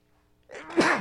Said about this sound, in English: Sneeze. Anyway. Do you not normally sneeze? no, that's the first time.